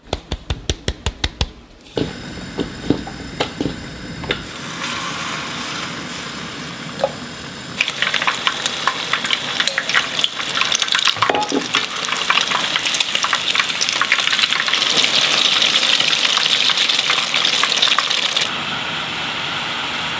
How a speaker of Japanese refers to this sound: 今朝は宮崎県の郷土料理チキン南蛮の美味しい音色